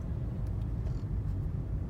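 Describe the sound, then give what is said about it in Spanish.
Steady low rumble of a car moving slowly through heavy traffic on the road back to San Antonio, in traffic heading to the 26, a constant engine and road drone with a few faint brief clicks on top and no one speaking. “Pero hay una de tráfico aquí para ir al 26, que bueno, ¿para qué les cuento?”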